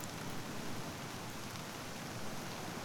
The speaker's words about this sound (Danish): Du hører den kraftige regn. Blæsten, der kaster styrtesøger gennem luften. Styrtesøger, der også slår ind på murene af det lille skur, du nu får øje på.